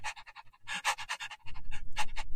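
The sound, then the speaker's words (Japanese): A person imitates a panting dog with a quick, steady series of breathy huffs. A low rumbling noise joins partway through while the panting continues. “この、犬、犬のように、ワンちゃんのように待てってのか。”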